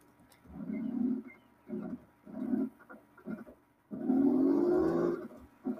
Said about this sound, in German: Erstmal Motor starten.